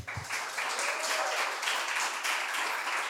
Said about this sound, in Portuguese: palmas então para esse pessoal que